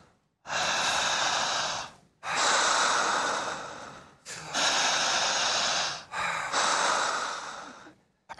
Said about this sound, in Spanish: Cierren los ojos y jale el aire, solamente por la boca. Jalando el aire con fuerza, con intensidad, con la misma dinámica.